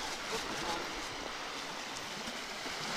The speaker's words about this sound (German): Das ist übrigens genauso beim Hören, wenn wir in Dezibel unsere Lautstärken messen, wie hier zum Beispiel die Wellen der Ostsee, dann sind die mitunter sehr laut.